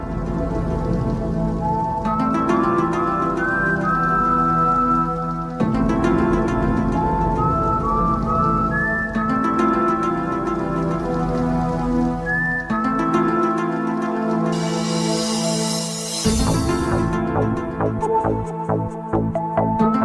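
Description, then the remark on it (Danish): The famous theme of the X-Files TV series played on Danish Radio 4: eerie instrumental music with a lone whistled melody gliding over shimmering, rain-like synth pads and a steady pulse, loud and continuous, with no voices. “Og vi har lige nogle sekunder endnu af dagens udsendelse, så jeg tænker, at vi lige kan nå at høre lidt mere af det her berømte tema fra X-Files tv-serien, inden der er nyheder her på Radio 4.”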